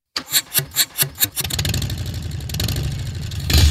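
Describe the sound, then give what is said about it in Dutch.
A Harley-Davidson motorcycle engine cranks with about six rhythmic chugs, then catches and settles into a loud, deep, rumbling idle that swells slightly at the end. No one speaks. “Kijk, ik hoop dat als ik Harley zeg dat ik het goed heb.”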